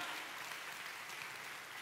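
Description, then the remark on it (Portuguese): An audience applauds God during a sermon, a dense, even wash of many hands clapping together with no pauses, fairly loud and sustained throughout, with no one speaking over it. “Se você crê em Deus como único e verdadeiro, aplauda Ele, dá um glória a Deus por essa verdade.”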